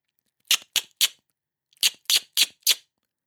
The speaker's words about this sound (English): The X click is known as the sideways click because it happens in the side of the mouth. It's also the sound that we use to spur a horse on.